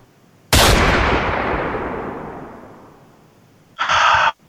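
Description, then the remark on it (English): A single loud gunshot cracks out and rings into a long, fading echo, followed near the end by a brief, bright burst of another sound. “What is going on with this network when I have to beg for a gunshot?”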